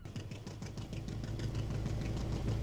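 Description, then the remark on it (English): A work boat's engine runs steadily with a deep, rumbling drone and low throbbing pulses as the throttle is opened up past a breakwater, growing slightly louder over the few seconds, with no voices. “When we reached the other side of the breakwater, he opened up the dotted eye, and she was super fast for a work boat.”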